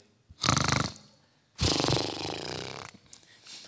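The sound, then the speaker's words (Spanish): A person imitates furious, aggressive snoring: two harsh, rattling snore bursts, a short one followed by a longer, rougher one, with no other talking. “También hay ronquidos furiosos.”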